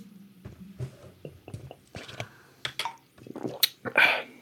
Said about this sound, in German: Basilikum Zitrone, das hört sich an nach einem, nach einem tollen, erfrischenden Getränk. Okay, dann trinke ich das jetzt.